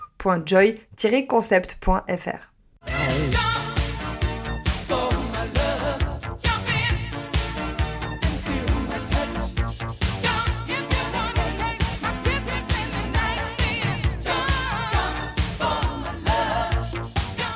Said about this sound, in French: Si on a des experts et expertes de films de Noël parmi nous, vous avez sûrement reconnu cette musique sur laquelle danse Hugh Grant dans Love Actually. C'est sûrement une de mes scènes préférées de ce classique de Noël.